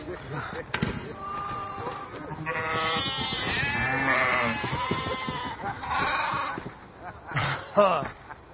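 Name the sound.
sheep bleating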